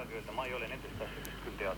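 A radio plays steadily behind a caller on a phone line, its muffled voices coming through the thin, narrow-band line at moderate volume, continuous with no pauses.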